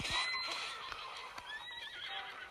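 A horse in a video game gives a loud, wavering whinny that rises and falls across a couple of seconds, with soft hoof clops underneath and no one speaking.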